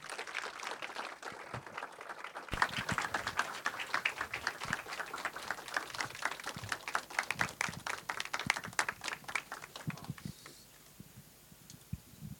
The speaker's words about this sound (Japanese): それでは、えー、お二人をお迎えしようと思います、えー、皆様大きな拍手でお迎えください、えー、監督村上隆さんと、えー、モデレーターの、えー、氷川隆介さんですどうぞよろしくお願いいたします大きな拍手でお迎えください